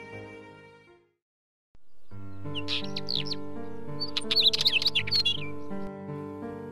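Bright, quick bird chirps flutter in over a sustained musical backdrop, clustering into a busy twittering burst in the middle before fading, with no voices present.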